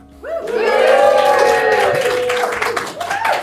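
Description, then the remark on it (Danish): A live audience at a science fiction, fantasy and horror conference in Aarhus, Denmark, bursts into sustained applause, dense clapping filling the room for about three seconds, with a few voices whooping and cheering over it before it begins to taper. “Vi optager denne her gang øh, foran et levende publikum på øh, konferencen Vilde Universer i Aarhus. Og vi kan høre, der er publikum.”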